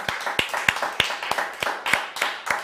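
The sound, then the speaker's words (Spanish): An audience applauds God (the Eternal) during a Bible study, a steady, dense wash of many hands clapping with sharper claps landing in a loose regular beat roughly three times per second. Fairly loud and sustained, with no talking. “Yo no sé si usted puede darle un fuerte aplauso al Eterno por lo que está haciendo.”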